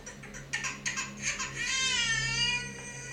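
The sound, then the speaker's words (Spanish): A baby cries in its bedroom, starting with a few short, choppy sobs and then breaking into a long, sustained wail that holds steady to the end. No one speaks. “El segundo ejemplo es que si nuestro bebé está llorando en su habitación y el asistente de voz instalado en esta habitación lo detecta, entonces estaremos avisados con el asistente de voz de Alexa de nuestra habitación y en el teléfono.”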